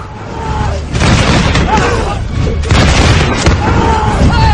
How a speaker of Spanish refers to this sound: Los tiros se resolvían más rápido y en las vanguardias de las formaciones herejes, los despachados caían abatidos por nuestras balas empujando hacia atrás a los suyos, obligándoles a revolverse una y otra vez